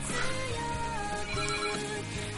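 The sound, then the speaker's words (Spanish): A telephone ringtone plays steadily and fairly loud, a melodic electronic tune with sustained tonal notes repeating throughout, heard alone without any talking. “del coño teléfono?”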